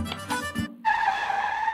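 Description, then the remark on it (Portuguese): A car brakes hard, its tires letting out a loud, sustained screech for about a second after a brief burst of rumbling engine noise. “Chibata, dá um freio aí”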